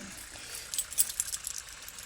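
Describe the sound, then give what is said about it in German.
A small metal key for a toy, engraved with the maker's name Kopperschmidt, clinks and rattles softly for about a second, a few light, bright taps as it is passed from one hand to another, with no voices. “Um genau zu sein, ein Spielzeug, ähm, zu dem äh, dieser Schlüssel hier passt.”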